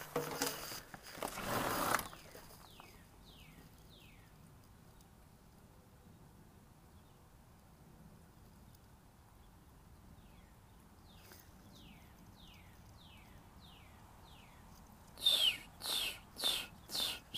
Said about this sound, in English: Listen to the bird. You're gonna hear a little bit.